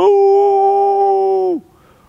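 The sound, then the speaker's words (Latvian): A wolf gives a single long, loud howl that holds one steady pitch for about a second and a half, then slides down and breaks off abruptly, leaving near silence. “Un tikko mēs dzirdam, ka kāds, atļaujiet man to salīdzināt ar, ar tādu suņu gaudošanu, nu, varbūt suņi ne tik daudz gaudo, bet uh, vilki, piemēram.”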